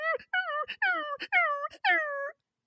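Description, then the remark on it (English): A person's voice imitates a dog whimpering and whining in a quick series of about six high, wavering whines with brief breaks between them, close and fairly loud, ending in silence. “would whimper and whine every time you didn't look at her for literally 30 seconds so if I went to go make a peanut butter and jelly sandwich, or I went to look at my computer screen or phone, all I hear in the background is.”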